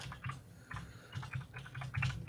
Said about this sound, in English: That's a beautiful sounding keyboard you've got there.